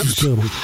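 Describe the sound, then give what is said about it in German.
A ballpoint pen scratches across paper in a short, raspy stroke with a faint squeaky tone, lasting under a second. “Ja, was du alles hörst, da geht der Kugelschreiber.”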